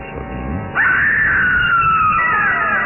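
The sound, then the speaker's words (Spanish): After a moment of low murmuring background, a woman lets out a sudden, loud, sustained high-pitched scream that holds for a couple of seconds, its pitch sagging slightly as it goes. “Ese grito. Es ella”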